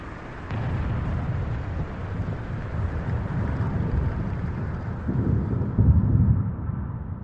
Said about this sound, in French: avec le bruit des explosions